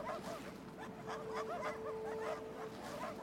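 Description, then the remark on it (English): A pack of sled dogs yips, barks and whimpers in a steady, overlapping chorus, with one drawn-out whine running beneath the quick repeated yelps, without any talking. The dogs pull a sled leading the way on a journey back to Bryn Shander. “You can hear the dogs ahead of you as Valen's sled leads the way.”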